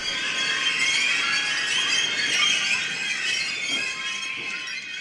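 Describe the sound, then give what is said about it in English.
A squeaking, squealing escalator gives off continuous high-pitched metallic whines and shrill overlapping tones, steady and fairly loud for the whole stretch, with no voices. “We understand that we could be over romanticizing a skronking and squeaking escalator.”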